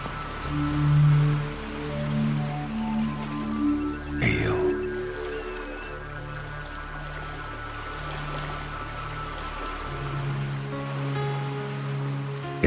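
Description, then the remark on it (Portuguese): A dolphin whistle and a sharp burst of clicks ring out, with short squeaky calls drifting in and out over steady ocean surf and a soft sustained musical drone. “O golfinho dos sonhos está a chegar.”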